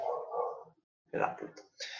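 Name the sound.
neighbor's dog barking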